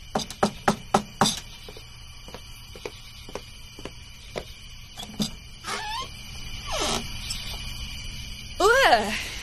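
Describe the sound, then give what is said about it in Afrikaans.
Five quick, sharp knuckle knocks rap on a door, followed by a few fainter scattered taps and brief vocal sounds toward the end. “Ek klop my kneukels flenters aan Sylvia se deur”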